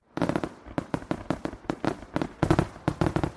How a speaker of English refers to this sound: okay, I'm going to need more fireworks in here